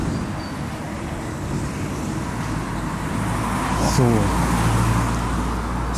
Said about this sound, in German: kommen jetzt wieder irgendwo hin, wo ein bisschen mehr Autos sind. Das gefällt mir gerade nicht so gut.